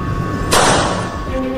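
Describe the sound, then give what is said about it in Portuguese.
A single sharp gunshot sound effect cracks out loudly, then fades in a short echoing tail over a steady low background hum. “E no momento em que Dani acordou o jornalista sonolento, ouviu um disparo.”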